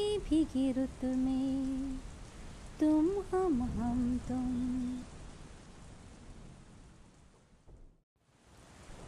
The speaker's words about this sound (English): After an hour of heavy downpour, the clouds scattered, giving way to the glistening sunlight. The pitter patter of the raindrops stopped too.